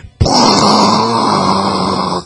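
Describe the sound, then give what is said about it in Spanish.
A person vocally imitates a harsh, buzzy 8-bit video-game punch sound, like a Dragon Punch connecting in an Atari-style game: one loud sustained raspy burst lasting about two seconds, with no talking. “Oye, pero imagínate, o sea, hacías un, por ejemplo, un Dragon Punch y el sonido cuando conectaba era como de Atari, güey.”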